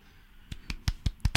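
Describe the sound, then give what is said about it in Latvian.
Brief applause in a studio after a poet recites their own poems from memory: about six sharp, crisp hand claps in a quick, steady rhythm, growing slightly louder toward the end, with no voices. “Šie ir aplausi studijā.”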